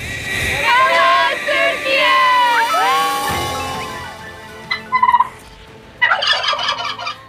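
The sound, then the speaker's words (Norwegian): A turkey gobbles loudly, a long warbling burst followed by two shorter, rapid rattling gobbles after a brief pause. “Men hva har den store fuglen med Tyrkia å gjøre? Hvorfor heter landet Turkey på engelsk?”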